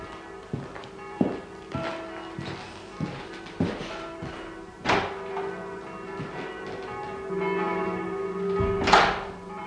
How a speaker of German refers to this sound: Es läutet.